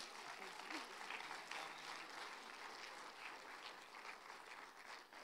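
An audience claps steadily for several seconds, a dense, sustained round of applause that stays fairly even in loudness, with faint crowd noise mixed in and no talking.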